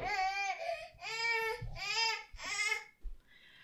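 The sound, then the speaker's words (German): A bored baby boy, at the spot where he had been playing, fusses in four drawn-out, whiny cries with short breaths between, fairly loud, tapering off into a brief whimper at the end. “Kurze Unterbrechung, Babys gelangweilt an an seinem Plätzchen, wo er gerade gespielt hat.”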